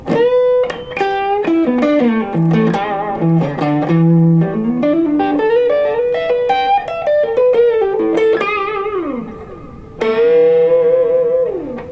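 A loud Les Paul electric guitar played through heavy distortion runs a sustained lead line with bent, singing notes, briefly dipping near the end before a final held phrase. No one speaks.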